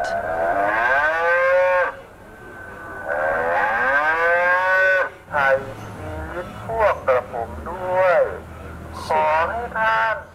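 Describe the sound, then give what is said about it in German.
An artificial donation cow at a Buddhist temple in Bangkok, Thailand, which responds when fed money, gives two long, drawn-out loud moos, followed by a choppy run of short electronic voice-like bursts, as if from a speaker. “Eine künstliche Kuh wünscht jedem, der sie mit Geld füttert, Gesundheit, Reichtum und ein langes Leben.”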